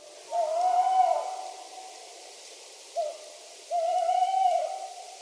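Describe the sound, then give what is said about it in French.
An owl hoots twice, each a long, steady, slightly wavering tone, separated by a brief short note, clear in a quiet night setting with no voices. “Chouette et hibou, par exemple, tranquillou dans leur trou.”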